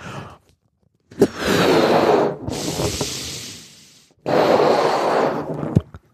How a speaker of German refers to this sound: Und dann nimmt man den Ballon, pustet ihn auf